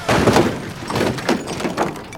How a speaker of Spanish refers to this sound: se estrelló con un camión de alto tonelaje.